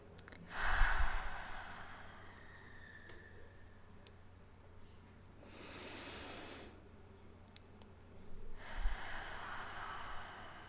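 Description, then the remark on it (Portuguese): Slow, deep breaths drawn in and let out during a guided meditation breathing exercise, three long airy breaths separated by quiet pauses, with no talking. “Primeiro a gente começa trabalhando a nossa respiração, então inspirando.”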